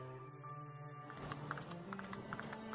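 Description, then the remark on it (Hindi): Horse hooves clip-clop in a quick, steady rhythm, each strike sharp, over a low sustained hum with no one speaking, as a freshly saddled horse is ridden toward a mango grove. “फौरन घोड़ा कसवाकर अमराई की ओर चल पड़े”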